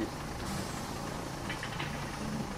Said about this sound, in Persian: بودو بودو، بودو بودو اتوبوس را افتاد دیر میرسیم